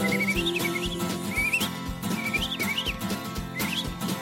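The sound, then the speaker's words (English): Bright, warbling bird-like chirps rise and fall in short repeated phrases, riding over a dense, steady musical backing that stays loud throughout. “Birds are singing so sweet melodies.”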